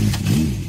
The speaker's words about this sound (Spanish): Cuando una moto de 30 caballos va por la autopista suena así.